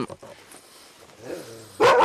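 A single loud dog bark bursts out at the very end, following a couple of seconds of quieter, low rustling and muffled sounds with no speech.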